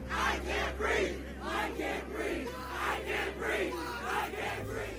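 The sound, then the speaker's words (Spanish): A crowd of protesters in Minneapolis, protesting the death of George Floyd, chants in unison, loud rhythmic shouts repeating roughly every half second with a steady low hum underneath. “Desde que fue divulgado el video en las redes sociales, los manifestantes gritan en una sola voz.”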